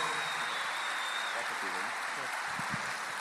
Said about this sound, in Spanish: Franco, un fuerte aplauso para esta gran estrella, este gran ser humano.